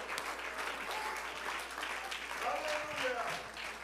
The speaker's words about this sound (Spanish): Y ese aplauso es para nuestro Rey, que suene como una alabanza profunda para Él.